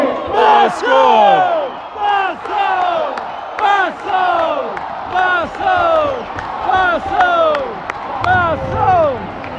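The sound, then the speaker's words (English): A stadium announcer rouses the crowd near the end of a football match involving Santa Clara, loud amplified shouts rising and falling in a steady rhythmic pattern, with massed crowd voices roaring and chanting underneath throughout. “that wasn't the final whistle, that was just the uh, stadium announcer getting the fans going.”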